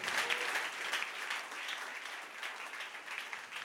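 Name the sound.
audience clapping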